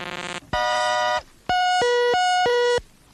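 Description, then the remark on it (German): A short experimental traffic-service jingle from East German (GDR) radio, made of synthetic electronic tones: a buzzy burst, a held synth note, then four loud alternating two-pitch beeps, alone without any voices. “Radio DDR Verkehrsservice. Nennen wir es experimentell.”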